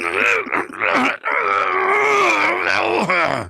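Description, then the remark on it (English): A voice actor imitates effortful grunting, the kind of walla noise recorded for shows like Family Guy: a few short strained bursts, then a long, loud, drawn-out groaning grunt, with no words spoken. “nearly 400 episodes of Family Guy American Dad and the Cleveland Show doing noises, you know, cheering, grunting, yelling, fighting.”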